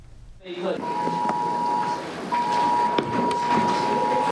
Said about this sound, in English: Alarms go off in the middle of class and students rush under their desks. It's time to drop cover, and hold on.